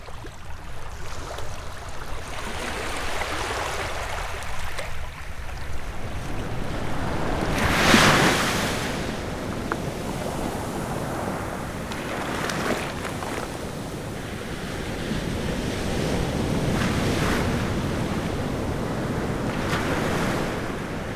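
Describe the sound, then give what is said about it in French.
Sea waves break against the shore in repeated surges as the tide rises quickly, a broad rushing wash swelling every few seconds, with a particularly strong crash early on and steady wind noise throughout. No voices. “Parmi les sons de la nature, le bruit des vagues est l'un des plus connus et des plus appréciés.”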